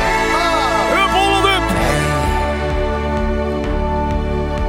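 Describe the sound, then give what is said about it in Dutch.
A loud, festive Dutch orange football anthem-style song plays with a full band and a sung vocal line that slides between notes, driven by a steady rhythmic beat throughout. “wij gaan gewoon ook een oranje liedje maken”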